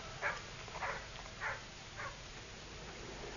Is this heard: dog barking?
yes